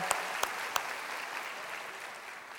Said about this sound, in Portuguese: Dá uma salva de palmas. Vocês podem sentar, muito obrigado.